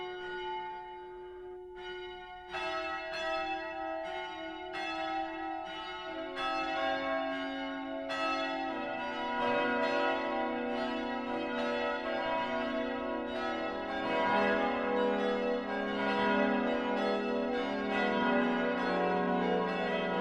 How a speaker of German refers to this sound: Darunter sind auch viele Friedensglocken.